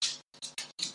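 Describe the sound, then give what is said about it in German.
The claws of Oscar, an older dog, clack on the floor as he walks around after lying for a long time: four quick, bright, scratchy taps in an uneven rhythm, moderately loud, with no voices over them. “Und man hört ihn gerade rumgehen.”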